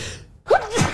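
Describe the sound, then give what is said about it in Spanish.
A single sneeze: a quick breathy intake that snaps into a sharp, noisy burst, then fades out. No talking is heard. “¡Salud!”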